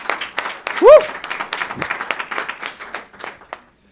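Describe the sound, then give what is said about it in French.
A crowd applauds to celebrate some twenty to thirty young people who publicly declared they want to follow Jesus Christ. The clapping is dense and fast, swells early, then thins out and fades by the end. A single rising vocal whoop cuts through near the start. “Et euh, j'aimerais qu'on puisse euh, applaudir pour célébrer euh, cet événement.”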